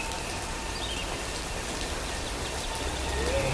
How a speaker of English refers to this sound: When you touch me, goosebumps rise from my frozen flesh, and each hair stands with anticipation while we writhe in summer rain.